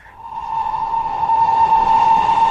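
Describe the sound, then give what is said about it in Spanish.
A train arriving at a station sounds a long, steady whistle, a single sustained high tone with rich overtones that swells louder over a couple of seconds above a low rumbling background. No one speaks. “¡Está llegando nuestro tren!”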